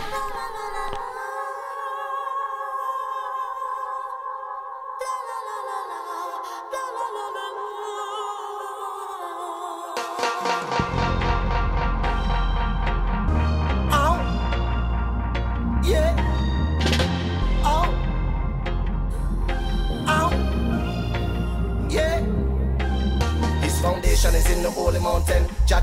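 A reggae song plays loud and close, opening with sustained melodic instruments before a full band with deep, heavy bass and steady drums kicks in about halfway through.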